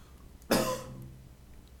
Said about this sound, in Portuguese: Tomara que tenha saído essa tosse